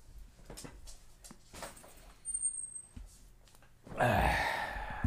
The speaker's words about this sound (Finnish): Se on tuo meidän koiramme Ronja, joka aina aukaisee ton oven